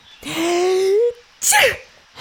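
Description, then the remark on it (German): A single loud sneeze from a sloth with a tickle in its nose: a drawn-out, rising voiced intake, a brief pause, then a sharp, breathy burst that quickly fades. “Doch plötzlich kitzelte ihn etwas in der Nase und er musste niesen.”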